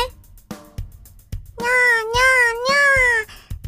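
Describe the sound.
A person imitates the meow of a stray cat with a drawn-out, wavering meow voiced clearly, breaking into three connected mews, preceded by a few soft clicks and brief quiet sounds.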